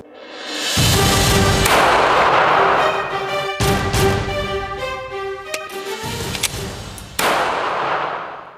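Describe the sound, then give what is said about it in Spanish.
Several loud gunshots, roughly four, fired a few seconds apart during training at an outdoor shooting range, each followed by a ringing metallic clang and long reverberant decay, like rounds striking steel targets. “I'm out here at the range and i put some rounds downrange trying to get some training and I'm thinking about this video.”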